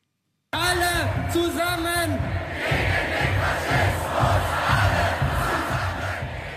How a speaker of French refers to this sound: Tous ensemble contre le fascisme, c'est le slogan qu'on a entendu dimanche dernier dans plusieurs villes d'Allemagne après donc la révélation de ce plan d'expulsion euh, massive.